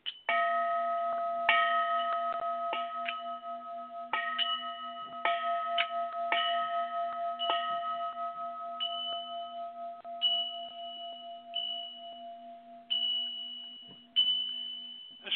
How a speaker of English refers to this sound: Chimes sound from the west.